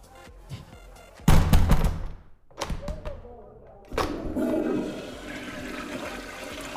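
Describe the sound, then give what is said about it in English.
A toilet flushes with a sudden loud rush of water at about one second, then a few clunks and thuds, followed by the tank refilling with a steady hiss and gurgle. “One of you guys back up the toilet? I can fix it.”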